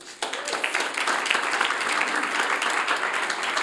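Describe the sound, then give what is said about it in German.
An audience bursts into applause after a brief quiet moment, a dense, steady wash of many hands clapping that holds at an even level for several seconds. “Geben wir ihnen doch einen Applaus.”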